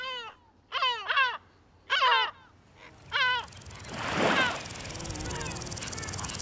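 Several loud, nasal yelping calls of a yellow-legged gull in Bouches-du-Rhône, France, in quick bursts of two or three notes, followed by a rising wash of wind or surf noise that fills the rest.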